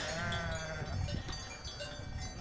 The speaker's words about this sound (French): Mais comme j'ai mis une bande son de mouton, vous vous doutez un peu de la chute.